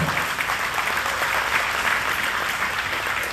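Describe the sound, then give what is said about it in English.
A church audience claps steadily, a dense, even wash of applause that holds at a constant level for a few seconds without any voices breaking through. “So, y'all guys, I'll give you some hand for”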